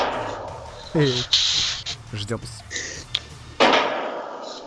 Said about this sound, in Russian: Что за звуки? Нет, ну, салют.